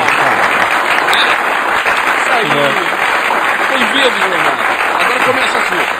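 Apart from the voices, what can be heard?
applause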